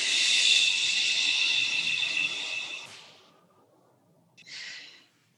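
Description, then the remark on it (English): During a breathing exercise, after an inhalation through the nose, a long, steady breath is pushed out through the mouth with sound, airy for about three seconds, followed after a short pause by a brief second puff of breath. No talking. “So here we go breathing in the nose and out through the mouth with sound, just following that sound.”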